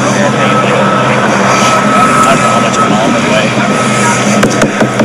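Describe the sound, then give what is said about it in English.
A propeller aircraft engine drones steadily and loudly, with a throbbing, drum-like pulse and a buzzing harmonic hum that never lets up. An indistinct voice is faintly buried beneath it. “It's like a drum beat.”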